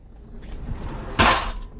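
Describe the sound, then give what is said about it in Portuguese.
A drawer in a motorhome that does not close properly slides open with a short, loud scraping rush lasting about a third of a second, preceded by faint low rumbling and knocks. “É, esse barulho aí foi da gaveta abrindo.”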